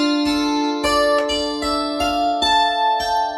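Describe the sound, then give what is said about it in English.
A stringed instrument is plucked in a steady pulse of about eight strikes, each note ringing on with a shimmering, bell-like tone and rich overtones. No one speaks. “you get like this really sort of bell like quality”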